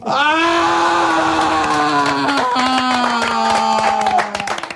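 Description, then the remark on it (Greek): A loud, drawn-out wailing scream from one voice, held for several seconds as its pitch slowly sinks, with scattered claps and crowd noise beneath it. “Και η δική μου απάντηση μαζί με αυτήν την κραυγή είναι όχι πάρα πολύ απλά είναι όχι.”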